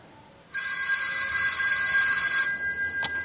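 A telephone rings with an incoming call to the PsyStation Line, a bright, sustained electronic bell tone lasting about two seconds, fairly loud, followed by a short click; no one speaks.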